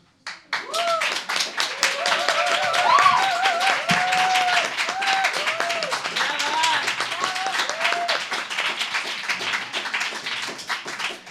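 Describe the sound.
An audience breaks into sustained, dense applause that runs for about ten seconds at a steady loudness, with a few voices calling out and cheering over the clapping.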